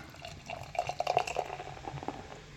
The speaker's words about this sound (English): Nice pour. You've done this before.